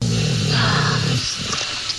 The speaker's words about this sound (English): the dog is now growling at the robot, who seems to be getting more excited.